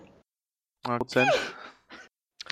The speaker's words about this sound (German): Gesundheit. Gesundheit.